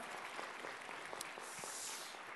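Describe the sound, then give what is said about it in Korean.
An audience at the G2G Vision worship service claps together in sustained applause, a dense, steady wash of many hands with scattered sharper claps standing out, continuing evenly for the whole stretch with no voices. “우리 같이 한번 하나 앞에 영화의 박수 올려드리겠습니다.”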